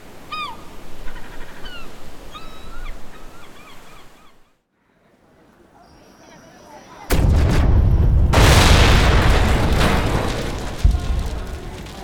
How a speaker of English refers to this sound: Okay, before you ask, yes, the explosions were me. It happens sometimes, alright? Started out as a little heist, just pick up some extra gold, you know, and then one thing led to another, and well. Pew, pew, pew, boom.